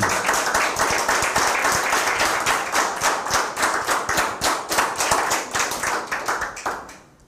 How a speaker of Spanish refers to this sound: Un fuerte aplauso.